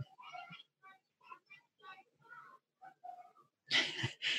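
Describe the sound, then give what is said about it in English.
Children's voices chatter and cry out outside, right in front of a house, ending in a sudden loud, harsh burst of screaming or shouting that flares up over the last half second. “you have to be able to hear kids screaming in the background.”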